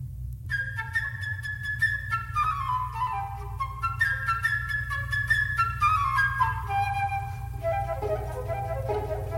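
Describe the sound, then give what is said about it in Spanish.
A transverse flute plays Prokofiev's bird theme, a quick, high, chirping melody of rapid trills and runs that dip and rise, heard alone over a steady low hum. “El pato comienza a discutir con un pájaro que Prokofiev presenta a través de la flauta travesera y que suena así.”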